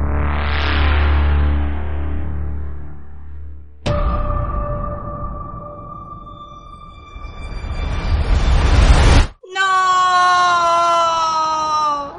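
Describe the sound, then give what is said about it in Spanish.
A loud scream of despair rings out in three long, piercing bursts, the middle one swelling into a harsh rising shriek before a wavering, strained final wail. No talking. “El grito de desesperación desgarró espacio y tiempo.”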